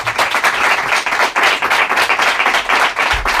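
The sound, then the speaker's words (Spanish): A room full of people, students of a sports journalism master's at Villanueva university in a radio station's main studio, applauds the radio steadily. Dense overlapping claps form a loud, sustained wash of clapping with no pauses and no voices clearly heard over it. “Si damos un aplauso a la radio.”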